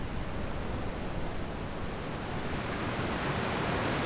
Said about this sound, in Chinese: 那不勒斯的海滩，呃，准确说是那不勒斯旁边小镇的海滩。